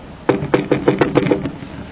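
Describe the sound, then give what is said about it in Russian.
A quick run of about seven evenly spaced, fairly crisp knocks on wood, lasting just over a second before fading into quiet. “Ждали, ждали, пошли и постучали.”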